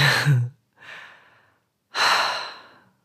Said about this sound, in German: Wir atmen tief durch.